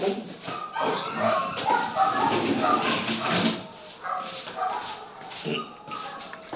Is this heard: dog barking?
yes